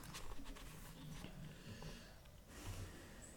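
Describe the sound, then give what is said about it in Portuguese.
The speaker's female dog Cacau sniffs and lets out breathy sighs beside the speaker, soft puffs of air coming in short bursts, with a longer exhale near the end. Quiet overall, no voices. “e Cacau suspirando aqui ao meu lado. É uma grande companheira essa minha cachorra.”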